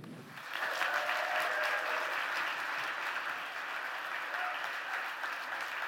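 An audience at a South Fellowship church service breaks into applause welcoming a guest speaker, a dense, steady clatter of many hands clapping that swells within the first half second and holds at an even level throughout.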